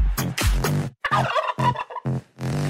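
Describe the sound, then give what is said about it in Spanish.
Female turkeys (guajolotas) call in a loud, rapid, rattling burst of warbling gobbles, the bubbling notes coming in several quick pulses with brief gaps between them, and no speech. “Estás escuchando las guajolotas más salvajes que nunca.”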